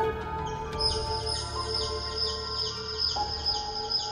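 Faint, high-pitched peeping like young chicks, coming from a mango tree in a front yard, repeated in a quick, steady series of short descending chirps over a low background hum, with no one talking.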